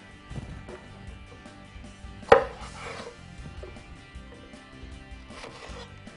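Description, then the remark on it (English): A knife chops cored green tomatoes on a cutting board for a Bloody Mary mix, giving irregular wooden knocks with one sharper, louder chop partway through. Nobody speaks. “Just make sure you get the core out of them. Just chop them up.”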